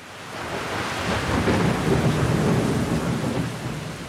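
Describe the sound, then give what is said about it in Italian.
A nighttime thunderstorm with lightning rumbles steadily, with deep rolling thunder swelling over a constant wash of heavy pouring rain, loud, no voices present. “la nostra macchina del tempo ci ha trasportati all'uscita di un imponente palazzo bianco, dalle cui maestose vetrate vediamo riflettersi i lampi della notte. Già, perché forse come avete intuito dai rumori in sottofondo, beh, piove a dirotto.”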